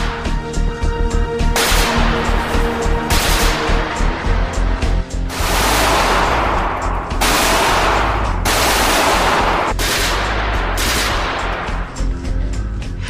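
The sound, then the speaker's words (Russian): A Maxim machine gun, the fully automatic gun Hiram Maxim created in 1885 that uses recoil to reload, fire and eject spent cases at about 600 rounds per minute, fires loud, rapid automatic bursts, one after another with brief pauses between, the rattling fire continuous over a low steady background hum. “сэр Хайра Максима, в 1885 году создает полностью автоматический пулемет, где сила отдачи при выстреле используется для перезарядки, спуска и выбрасывания стрелянных гильз.”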